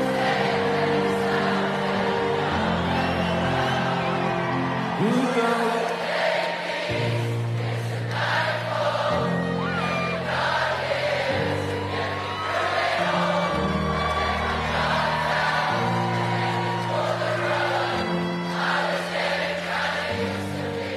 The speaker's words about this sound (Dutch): ja, ik zit hier echt met kippenvel. Ik vind het ook altijd fascinerend trouwens dat als 60.000 mensen die niet kunnen zingen, samen zingen, het ineens wel zuiver is.